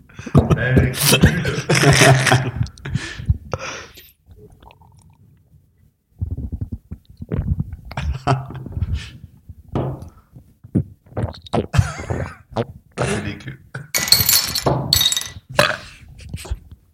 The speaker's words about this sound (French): Il met son micro dans le verre pour voir si ça fait du bruit.